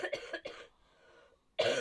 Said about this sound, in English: And like the last two podcasts, I've been coughing. It's yeah. just buildup of mucus. That's all.